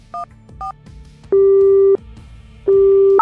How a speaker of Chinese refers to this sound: 我蹲在他身边等了很久，直到他不再挣扎，我才慢慢掏出手机，拨通了报警的电话。